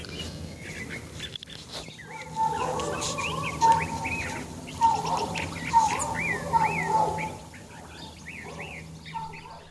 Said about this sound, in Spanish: el sonido de un amanecer en mi casa.